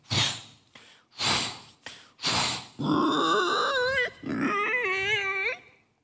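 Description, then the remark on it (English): Pigs grunt in three short, rough bursts while being fed from a sack of feed, then break into two long, high, wavering squeals, loud and with no one talking. “and empty the sack to the biggest pigs.”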